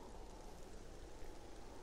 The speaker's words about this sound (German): Am dritten Tag begann der Regen.